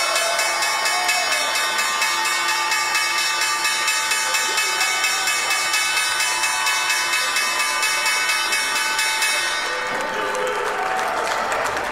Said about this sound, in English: Welcome back to First Move Live from the New York Stock Exchange and a very exciting ringing of the opening bell this morning by uh, the American First Lady Melania Trump, ringing the bell to promote her children's charity, Be Best, of course.